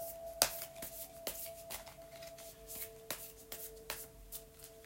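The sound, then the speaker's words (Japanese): A deck of cards is shuffled with a series of crisp, papery riffles and snaps at an irregular rhythm, then a single card is drawn to pick a lucky song of the day, with no one speaking throughout. “今日のラッキーミュージックみたいな形でねちょっと弾こうかと思いますでちょっと1枚弾きますね”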